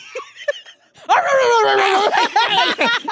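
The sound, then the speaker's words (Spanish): A hungry stray dog gives a few short, sharp yips, then breaks into loud, drawn-out high-pitched whining and whimpering that wavers up and down, nearly continuous. “Y ese perro de la calle que anda, güey, agárralo. Tiene hambre.”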